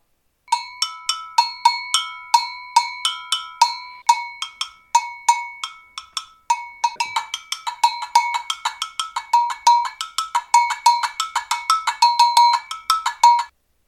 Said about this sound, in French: Agogo, c'est l'instrument de percussion idiophone, constitué d'une ou plusieurs cloches en métal qui se jouent avec une baguette en bois.